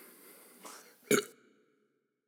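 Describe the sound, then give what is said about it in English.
A single short, abrupt burp after drinking Keystone Light beer, preceded by a softer throaty rasp, then fading into quiet. “Yeah, there's a burp coming in.”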